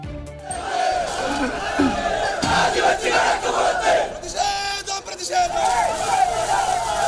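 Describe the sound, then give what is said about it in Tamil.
A crowd of Congress party protesters laying siege to the Secretariat in Thiruvananthapuram, Kerala, shouts and chants together in a dense, continuous roar, many voices overlapping loudly throughout with bursts of louder yelling rising above the din. “தங்க கடத்தல் விவகாரத்தில் கேரள முதலமைச்சர் பினராயி விஜயன் பதவி விலக கோரிக்கை திருவனந்தபுரத்தில் தலைமை செயலகத்தை முற்றுகையிட்டு காங்கிரஸ் கட்சியினர் போராட்டம்”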